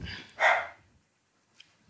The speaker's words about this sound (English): My, my, my, dog, who you may hear, is also waiting to find out the same.